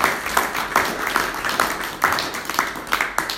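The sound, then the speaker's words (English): An audience applauds the Society of Friends for the refurbishment of the west door, many hands clapping at once in a dense, crackling wash of sound with a few louder bursts standing out, and nobody speaking over it. “So please can we give a round of applause to the Society of Friends.”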